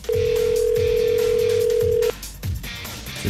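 A phone line's ringback tone on an outgoing call: one long, steady electronic buzz lasting about two seconds, heard clear, then it cuts off, leaving faint background hiss.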